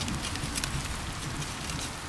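Steady, gritty scraping with a light crackle as a digging fork draws a furrow through dry garden soil, continuing without pause for a couple of seconds and no voices.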